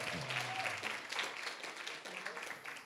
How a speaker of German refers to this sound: Auch für Sie nochmal einen richtigen Applaus.